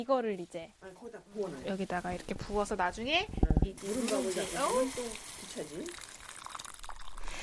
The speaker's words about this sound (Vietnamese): khi đổ nước ấm vào nồi gang, chúng ta sẽ nghe thấy tiếng xèo xèo rất vui tai. Cháy khô dưới đáy nồi sẽ ngấm nước và từ từ mềm ra, khi uống sẽ có vị bùi và thơm nguyên chất của gạo.